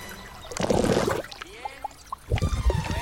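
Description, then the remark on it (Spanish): Water trickles and splashes in two short bursts, with a few bubbly, rising drip sounds between them, as a platypus emerges from the water. No one speaks. “Del agua surge un ornitorrinco que lo mira fijamente.”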